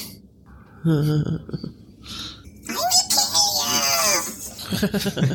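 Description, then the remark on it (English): A person voices a werewolf's scream: a few short growling moans, then a loud, strained, rising shriek that trails off into ragged wailing. “he screams.”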